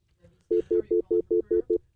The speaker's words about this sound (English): Phones are ringing already. The lines are.